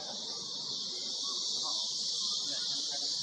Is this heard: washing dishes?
no